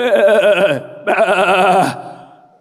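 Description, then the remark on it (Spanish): A person imitates a sheep with two loud, quavering bleats, the first longer and the second after a brief pause, trailing off afterward, clear with no other talk. “Y si una oveja tiene necesidad, y llama al pastor.”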